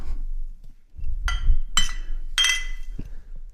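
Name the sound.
glasses clinking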